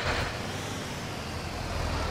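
Mutual Audio Network delivery trucks rumble as they drive off, a steady, loud engine roar with hissing road noise that holds level for a couple of seconds, with no voices.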